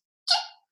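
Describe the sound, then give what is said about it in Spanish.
A single sharp sneeze bursts out, loud and breathy, then trails off quickly into silence. “Perdón. Salud.”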